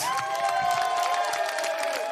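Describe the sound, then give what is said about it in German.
A crowd bursts into sustained applause and cheering, dense rapid clapping mixed with whooping voices and high whistles, holding steady and loud for the whole couple of seconds. “einen fetten, riesen Arschloch-Trockau-Applaus für was?”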